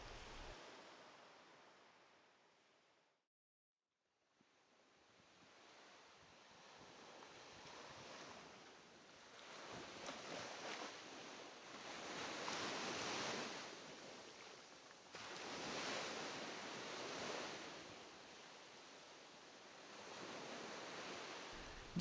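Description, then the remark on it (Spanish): Ocean waves crash onto a sandy seashore in the sun, in repeated broad surges of hissing surf, swelling and receding every few seconds, with light wind noise and no voices. “Las olas chocando, llegando, la arena, el sol.”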